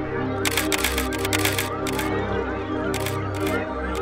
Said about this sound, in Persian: محو صحنه شده بودم که صدای شاتای دوربین مالکوم منو به خودم آورد